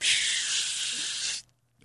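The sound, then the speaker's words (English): A voice imitates a spray paint can being used to draw a net, making one steady, bright hiss that lasts over a second and then cuts off abruptly, followed by a brief quiet moment. “and he comes back shaking the spray paint thing”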